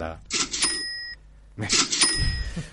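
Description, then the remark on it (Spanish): A cash register is pressed repeatedly, two bursts of clattering key presses each ending in a bright, sustained ringing chime, with a brief pause between them. “No seas malo, no sigas pulsando la caja registradora.”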